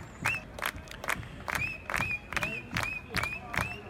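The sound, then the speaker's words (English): A Vanderbilt fan's piercing, high-pitched whistle repeats in short, rising chirps about every half second, cutting loudly through the steady roar and chatter of a large stadium crowd at the College World Series. “this is the Vander one of the two Vanderbilt whistlers that you hear incessantly throughout the College World Series.”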